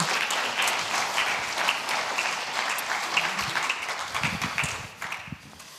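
An audience applauds steadily for several seconds, a dense wash of many hands clapping at even loudness, with a few faint voices mixed in near the end as it starts to taper.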